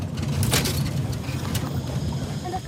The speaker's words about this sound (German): Iber startet den Motor und steuert das schwer beladene Holzboot flussaufwärts